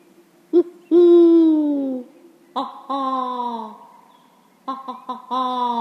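A human voice imitates an owl with a series of drawn-out, wavering hoots, some long and sliding downward, others short and clipped, fairly loud with quiet gaps between.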